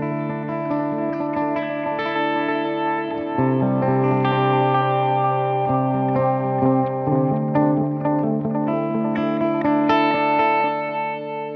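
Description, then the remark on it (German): A distorted electric guitar plays a sustained lead line with many rich harmonics, its tone shifting in body and midrange partway through as an equalizer pushing the mids is switched on and off during playing. No one speaks. “Genau, aber vielleicht sollten wir nochmal an- und ausmachen während, während des Spielens, dass man mal hört, wie wirklich die Mitten da durchgeschoben werden.”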